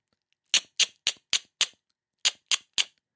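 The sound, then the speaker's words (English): A mouth makes sharp lateral X clicks at the side of the mouth, the side of the tongue pulled quickly away from the upper side teeth, the sideways clucking used to urge a horse on: five quick clicks in a steady rhythm, a short pause, then three more, crisp with no talking. “The X click is known as the sideways click because it happens in the side of the mouth.”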